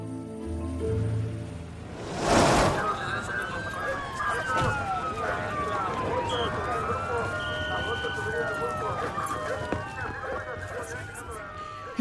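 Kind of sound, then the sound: vehicle, police car sirens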